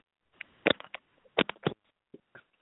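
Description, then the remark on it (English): Irregular bursts of clicking, tapping and rustling as a caller handles and fumbles with a phone over the line, with short gaps between the knocks and no voice. “I, I can hear you playing okay. with the phone, but we can't hear your voice.”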